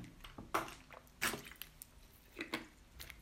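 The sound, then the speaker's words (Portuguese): A person sips a drink that is not water: a few short, wet slurping and swallowing sounds spaced about a second apart, with quiet pauses between and no talking. “Vou dar aqui um golinho.”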